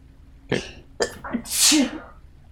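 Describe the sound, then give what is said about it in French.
A couple of sharp catching breaths build up to one loud, hissing sneeze, with no talking around it. “je pensais que c'était ta blonde qui avait éternué, c'est toi qui s'était excusé.”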